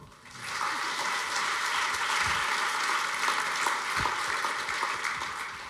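A crowd breaks into steady applause, many hands clapping in a dense, even roar that starts quickly and holds at a constant level for several seconds without any voices.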